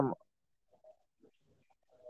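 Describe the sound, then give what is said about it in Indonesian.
Faint, far-off bird calls: a few soft, cooing tonal notes scattered across a quiet background, preceded by a brief louder burst at the very start. “suara burung betul jauh yang”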